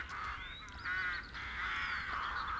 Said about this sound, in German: Hörst du die Raben? Sie sind unüberhörbar.